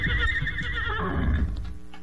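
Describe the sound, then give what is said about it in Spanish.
A horse's loud whinny rings out in one long, wavering cry lasting about two seconds, gradually trailing off, with a low rumble underneath. “Ah se oyó el relincho del animal.”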